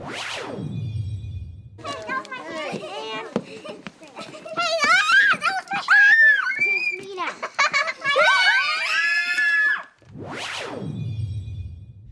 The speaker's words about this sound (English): there's just this weird kind of vocal, creepy soundscape in the background, and it's actually kids at a playground